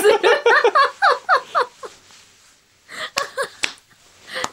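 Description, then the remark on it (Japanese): A burst of rhythmic, breathy laughter, then a pause, followed by a few light, sharp slapping pats on a soft belly, with murmuring between them. “なんかなんかねほんとねパンの生地こねてるみたいな感じの 美味しそうな音がしますね”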